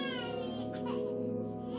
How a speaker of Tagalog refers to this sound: Napuno rin ng iyak ng mga batang sanggol ang paligid.